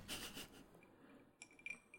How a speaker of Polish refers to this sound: to jest y, napój, bo jest 30 stopni i mam po prostu szklanki pełne lodu przed sobą. I soku. I nic więcej.